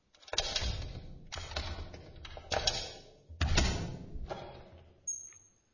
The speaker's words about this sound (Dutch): Voetstappen op de trap.